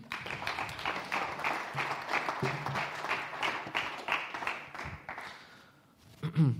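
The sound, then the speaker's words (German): An audience applauds a person with dense, steady clapping for several seconds, loud, then fades out as a voice begins speaking at the end. “Ein Applaus für dich.”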